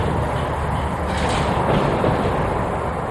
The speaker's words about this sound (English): Winds howl through a hangar at Wendover Airfield in Utah's Great Salt Lake Desert. The windows are smashed, the walls rusted. Once the hangar was home to the Enola Gay, the B 29 bomber that dropped the first atomic bomb on Japan.